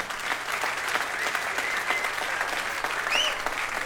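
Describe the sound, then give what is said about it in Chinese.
Steady applause from a crowd, a dense patter of many hands clapping at an even level for the full few seconds, with a brief high whistle-like tone near the end. “好听， 哎，咱们这听的还是现场版， 对，自带掌声，这个好。”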